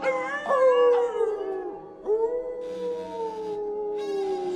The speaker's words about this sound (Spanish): Cuando la puerta empezó a abrirse, los aullidos de los lobos en el exterior se hicieron más violentos y furiosos.